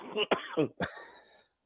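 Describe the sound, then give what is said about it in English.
A short coughing fit: three or four harsh coughs in quick succession, the last one sharper and more explosive before trailing off into quiet. “I apologize for the level of blasphemy and coughing in this last 10 minutes.”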